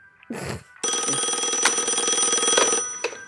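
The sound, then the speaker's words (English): A telephone bell rings loudly in one continuous metallic trill lasting about two seconds, preceded by a brief clatter, with no voices, in a screen scene where Leslie Jordan answers the phone. “Oh, and then we get a shot of Leslie Jordan for some reason being the person who answers the phone.”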